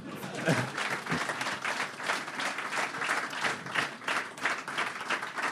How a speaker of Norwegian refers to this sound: Applaus for det, eller?